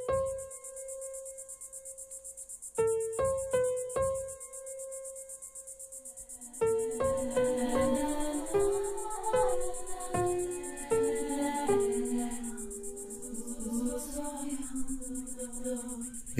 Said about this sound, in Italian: questo canto, amore mio, di cicale, sotto il sole di luglio, in una campagna italiana, cielo azzurro e poche nuvole, piccole, odore forte di rosmarino e ginestre, e questo canto pazzo che non si ferma nell'aria bianca, bruciata,